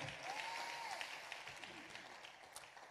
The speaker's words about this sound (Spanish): Ese es un buen lugar para aplaudir y decir amén.